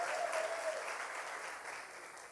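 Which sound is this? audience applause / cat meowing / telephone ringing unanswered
audience applause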